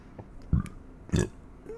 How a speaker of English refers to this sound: excuse me and not always burp in the microphone. And I do apologize uh, for that.